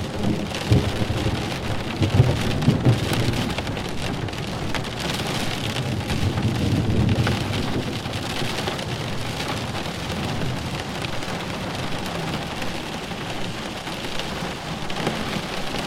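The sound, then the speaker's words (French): Steady heavy rain pours down with low, rumbling thunder rolling underneath, a dense continuous storm wash with no voices, the rumbles swelling briefly near the start and middle. “Votre attention concentrée sur le bruit de l'orage vous a fait oublier le stress et les tensions accumulées.”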